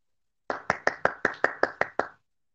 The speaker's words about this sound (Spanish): Les pido que reciban con un fuerte aplauso